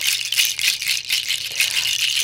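A chakchas, a ceremonial shamanic rattle of dried Amazonian nut shells made of natural materials with no metal, gives a dense, continuous rattle as the shells clatter together, shaken in steady swelling pulses, fairly loud with no talking.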